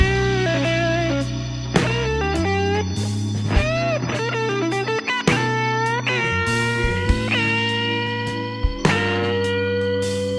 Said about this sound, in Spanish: Pues les platico brevemente que durante la década de los años 50, en la ciudad de Memphis, la escena del blues estaba agarrando gran popularidad y uno de los sonidos que más se escuchaba era la distorsión de las guitarras, como esto.